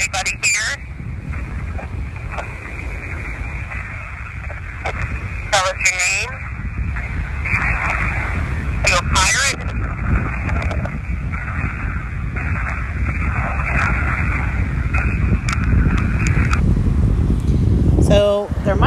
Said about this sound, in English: It's hard for us to hear because of the waves and the wind going on.